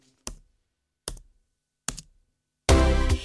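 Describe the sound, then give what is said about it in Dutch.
Three crisp keyboard key presses land slowly, almost a second apart, then a sudden loud, dense burst of sound takes over until the end. No one speaks. “Maar hé, hey, wat zie ik nou, ben je nu eindelijk aan het typen?”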